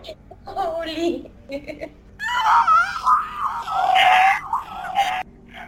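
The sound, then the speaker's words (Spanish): A person voices a strained, wavering shriek, drawn inward with a raspy, wailing quality, imitating a creature's scream. It rises and wobbles for a few seconds after some brief breathy vocal sounds. “Los voltea a ver a todos y hace un grito eh, como hacia adentro.”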